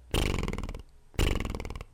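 A voice does two loud voiced lip trills as a voice exercise, index fingers pressing lightly on the cheeks, lips fluttering rapidly like a horse blowing, each lasting about half a second with a short pause between them.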